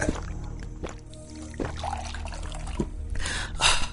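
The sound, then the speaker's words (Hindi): Water is poured into a glass to drink, with uneven splashing and clinks that build to a brighter, rising gurgle as the vessel fills near the end. “अच्छा लीजिए पानी पीछे”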